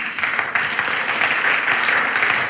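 A crowd applauds steadily, a dense wash of many hands clapping at an even, fairly loud level throughout with no voices standing out.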